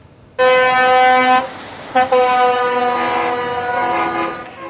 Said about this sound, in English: A show of support in Maple Ridge along Lougheed Highway this afternoon as truckers honked their support for a family in mourning.